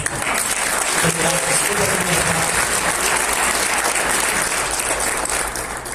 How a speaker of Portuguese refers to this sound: Obrigado, gente. Alguém pode aplaudir esse caso?